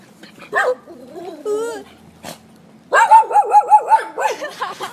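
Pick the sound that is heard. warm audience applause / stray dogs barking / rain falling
stray dogs barking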